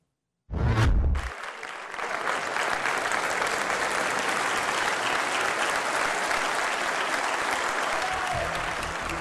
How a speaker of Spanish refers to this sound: Así fue la ovación que recibió el presidente de Ucrania ante el Congreso de los Estados Unidos.